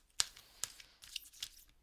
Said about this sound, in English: So I'm just going to give this one more one more shuffle here.